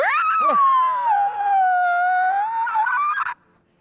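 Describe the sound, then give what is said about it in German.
A long, eerie, deep monster scream from a creature with a clown-like face and large razor-sharp teeth rings out alone, loud, holding a wavering, howl-like pitch for about three seconds before cutting off abruptly. “kommt vor dir einfach nur direkt Nase an Nase ein Gesicht mit großen, äh, clownsartigen, messerscharfen Zähnen, die Augen grell und schaut dich an und du hörst nur einen tiefen, gruseligen Schrei von dieser”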